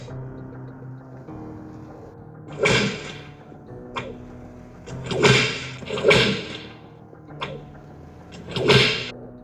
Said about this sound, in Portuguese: O cruel coronel prendeu Quito no, no tronco, pegou o chicote e arriou o cacete.